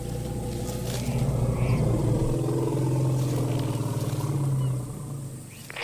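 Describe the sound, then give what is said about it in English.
A herd of elephants vocalizes with deep, sustained rumbling calls that swell and hold for several seconds, loud, over a low background drone, with no one speaking, reacting to a sound played from a camper van. “You can even hear them vocalizing.”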